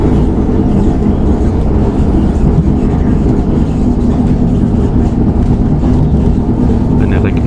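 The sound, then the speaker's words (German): A regional train rumbles past on the rails, overtaking the train the listener rides in, a loud, steady roar of wheels and carriages that fills the whole stretch without letting up, with faint murmuring voices underneath. “Regionalbahn, die vorbeifährt, die uns überholt. Eine S-Bahn, die uns entgegenkommt.”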